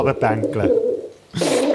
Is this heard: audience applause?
no